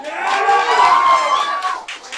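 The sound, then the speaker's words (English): An audience breaks into applause mixed with cheering and whoops, clapping to vote for the 'best of' segment: a steady wash of clapping with raised voices on top, holding for about two seconds before tapering slightly. “Clap for best of.”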